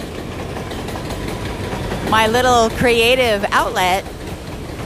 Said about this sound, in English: that is the sound of the 6 train in New York City, the express train running past me. Goodbye, 6, because I'm waiting for my local train. The expresses don't stop where I live.